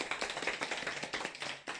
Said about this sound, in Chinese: 来，掌声欢迎！